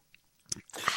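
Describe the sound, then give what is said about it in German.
Mouth noises: a sharp wet smack, then a stretch of loud, crunchy chewing right against the microphone, with no talking. “möglichst weit weg zum Mikro, damit die Hörerinnen nicht wieder abschalten, weil wir oh. zu laut oh schmatzen.”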